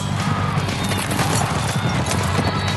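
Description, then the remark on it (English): A rush of galloping hooves pounds steadily and loudly, a dense drumming of many racehorses bursting forward together out of the starting gate at the start of a race, with a faint whinny over the thundering rhythm. “The horses are at the gate.”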